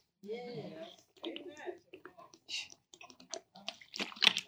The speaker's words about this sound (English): Let me get my Trader Joe water with electrolytes.